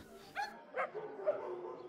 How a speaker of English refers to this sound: look at our dogs. They're having a whole conversation right now. They're still friends.